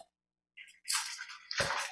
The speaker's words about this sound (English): The bag is completely sealed on both ends, and um, it, it just can be incredibly difficult to open. So, when that happens, we get out a knife or scissors. In my case, I'm going to get out the scissors